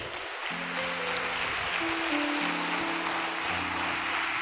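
An audience applauds for God in a steady, dense wash of clapping that holds for several seconds, while sustained low keyboard chords shift underneath.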